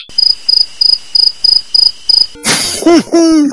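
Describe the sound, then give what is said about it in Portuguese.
Seven evenly spaced cricket chirps from a 'Grilo Feliz' game cartridge pulse at a steady rhythm, bright, then give way to a harsh burst of noise with wavering, sliding tones at the end. “Claro, via com cartucho de jogo do grilo feliz”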